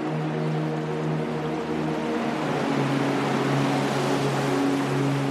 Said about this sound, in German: Nun wird es immer lauter von weitem sind mittlerweile Wellen zu hören.